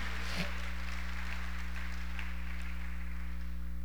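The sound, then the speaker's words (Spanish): An audience applauds the Lord with a steady, even wash of clapping that lasts the whole stretch and stays fairly faint, over a constant low electrical hum. “Dale el aplauso al Señor esta noche.”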